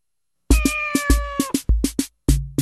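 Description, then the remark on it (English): A single drawn-out cat meow, slightly falling in pitch, over a steady run of sharp percussive beats that continue after it fades. No one speaks. “C is for cat.”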